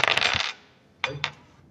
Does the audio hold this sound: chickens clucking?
no